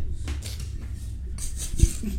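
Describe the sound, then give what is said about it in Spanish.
Microphone handling noise: scraping, rustling and low rumbling bumps as the mic is pulled and adjusted, with one sharp knock near the end. No one speaks. “No sé qué pinche baña tienen de, de jalar el micro, güey.”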